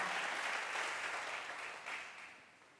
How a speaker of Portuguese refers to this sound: Dá um aplauso a Jesus. Vamos sentar.